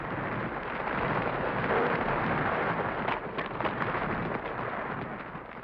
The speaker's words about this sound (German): In Lawinen stürzen Eis und Schnee zu Tal